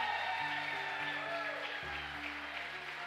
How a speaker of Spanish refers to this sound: Denles aplauso fuerte.